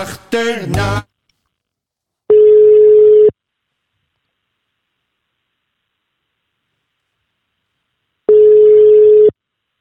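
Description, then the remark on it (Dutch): Ringback tone of an outgoing phone call to an ambulance colleague in Friesland: two steady, mid-pitched beeps about a second long, separated by several seconds of silence, after a brief harmonic sound at the start. “Deze zomer ga ik bellen”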